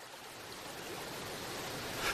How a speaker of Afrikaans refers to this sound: Hy onthou skielik dat daar 'n waterval in die rivier is en hy is reguit op pad soontoe in die stroom wat hom intussen meegesleur het.